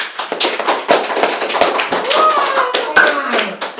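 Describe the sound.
A round of applause from a few people welcoming a guest on a show: brisk, loud, overlapping claps that keep a steady clatter for a few seconds, with some faint voices mixed in.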